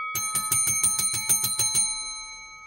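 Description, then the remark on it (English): A bright metallic bell, used as a fight bell, rings in a quick, even burst of about nine strikes, then its tone hangs and fades. Loud, with no talking. “That's your, uh, that's your fighting bell.”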